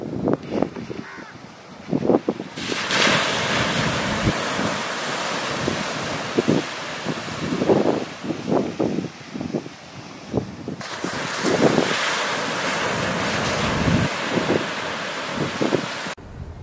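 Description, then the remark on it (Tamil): Sea waves rush and wash onto the shore at Dhanushkodi in long, steady surges, with wind buffeting the microphone and occasional sharp bird caws over the roar. No one speaks. “அங்கே கடல் அலை எழுப்பக்கூடிய சத்தமும்”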